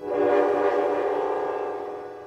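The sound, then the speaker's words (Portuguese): A train horn blares in one long, steady, chord-like blast that swells quickly and then slowly fades, with no voices present. “Todos os anos, os papais do Martin levavam-no para a avó para passar as férias de verão, e eles voltavam para casa no mesmo trem no dia seguinte.”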